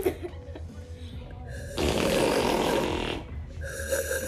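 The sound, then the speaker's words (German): A person imitates a video game drinking sound with a rough, gurgling slurp lasting over a second, surrounded by quieter breathy mouth noises and no talking. “ich kann den Minecraft Trinksound nachmachen”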